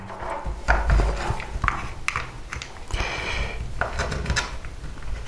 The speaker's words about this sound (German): so, der Kameraadapter funktioniert wieder. Das ist doch schön. Kann ich meine Verlängerung wieder ranklippen. Meine USB-Verlängerung, die habe ich nämlich immer dran.